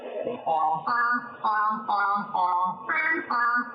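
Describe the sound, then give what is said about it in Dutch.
A short melody of about seven sustained, voice-like tones, played for a grey seal to imitate for a fish reward, each note held briefly and stepping up and down in pitch, clear with no talking. “kijk, we spelen een melodietje en als de zeehond het juist nadoet, krijgt hij een vis”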